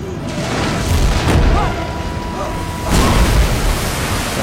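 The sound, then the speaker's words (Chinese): A heavy bathtub falling from the floor above and crashing down, heard as two loud, booming impacts a second or so apart, each a burst of deep rumble and clatter over a steady noisy background. “此时，男主和老黑刚刚赶到，而楼上的浴缸也正好坠落下来。”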